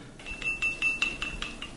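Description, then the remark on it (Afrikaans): A spoon stirs sugar briskly into a cup, clinking against the sides about seven times in a quick, steady rhythm, each tap bright with a faint ringing tone; no one speaks. “Nou sit mens suiker by en jy roer.”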